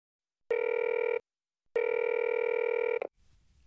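Two long ringback tones purr through a phone line during an outgoing call to a guardian's phone, each about a second or more, separated by a short silence, then a faint click and line hiss as the call connects.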